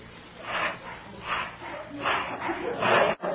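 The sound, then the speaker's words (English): A person pants as a breath-control exercise, in quick, breathy bursts, about four heavy huffs in a steady rhythm, fairly loud, sounding almost like a dog catching its breath. “Now, let's hear you pant like this.”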